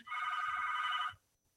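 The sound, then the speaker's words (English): A phone rings loudly and steadily for about a second with an incoming call, a bright trilling electronic ring with a rapid warble, then cuts off into near silence. “this sorry ah, kasi there's a there's a phone call incoming from me.”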